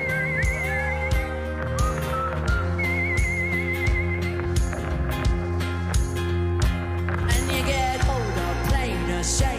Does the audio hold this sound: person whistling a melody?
yes